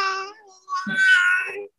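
A baby babbles and lets out high, drawn-out squeals, two bursts of voice with a brief pause between them, and no adult speech.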